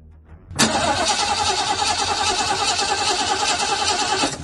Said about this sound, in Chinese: 现在见三位领导已经上车准备出发了，这两人才快步走过来。林峰坐到了副驾驶位置，郝文明发动了汽车。